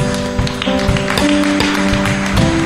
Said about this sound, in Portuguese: Dá salva de palmas a Deus.